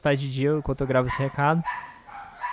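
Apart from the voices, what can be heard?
dogs barking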